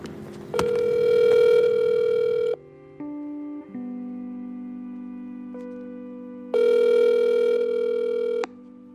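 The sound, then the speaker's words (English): Outgoing phone call to the speaker's mom in Silver Spring, Maryland: tones then two long ringback bursts separated by a steady lower hum, clear and fairly loud, with no talking. “I'm just about to call my mom”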